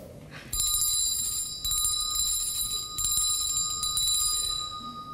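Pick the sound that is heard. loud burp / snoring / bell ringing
bell ringing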